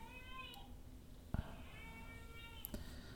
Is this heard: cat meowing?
yes